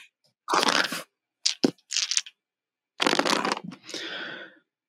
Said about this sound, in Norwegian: Er det terning det var? Ja, det var terning.